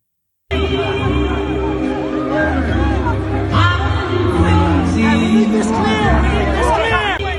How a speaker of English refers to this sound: so this might have like a lot of crowd noise and things like that, but you can kind of get the gist of it. But I'm gonna play this real quick